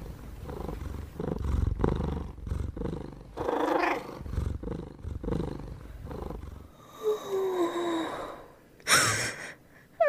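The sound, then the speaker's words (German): A sleeping kitten in a rabbit hutch purring in steady, rhythmic rumbling waves for several seconds, fairly loud, before it fades into a few softer, higher squeaky sounds. “das Kätzchen ist auch eingeschlafen.”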